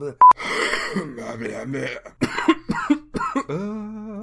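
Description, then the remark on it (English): Wet, phlegmy coughing from a person full of phlegm: a few harsh bursts in quick succession, surrounded by drawn-out groaning and throat-clearing sounds from the same voice. A short beep sounds at the very start. “I'm so full of phlegm, it's unbelievable.”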